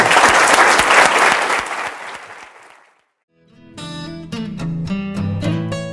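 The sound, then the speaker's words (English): A large audience claps loudly after a lecture at Stanford, a dense burst of applause that gradually dies away over a few seconds, then after a brief silence melodic music begins. “Please join me in thanking Reid for this fabulous”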